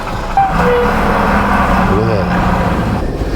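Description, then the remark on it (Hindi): A loud, steady roar of a truck speeding past on the road, with deep rumbling engine and road noise filling the whole moment and faint voices buried underneath. “अरे बाप रे आराम से आराम से ये ट्रक जो है ट्रक भाई बहुत तेज़ी से निकल गया”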